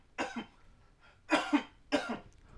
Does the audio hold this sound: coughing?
yes